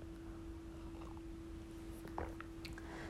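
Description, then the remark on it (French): A quiet sip of hot coffee: a few soft slurping and swallowing noises, faint over a steady low electrical hum, with no one talking. “Je veux juste prendre une gorgée de café.”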